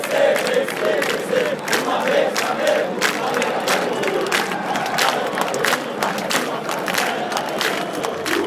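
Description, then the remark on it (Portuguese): A huge crowd of Flamengo football fans roars and chants in unison at a match between Flamengo and São Paulo, a dense, sustained wall of voices with rhythmic shouted surges and cheering running steadily throughout. “Escuta aí, Ulisses, essa torcida mais bonita do Brasil.”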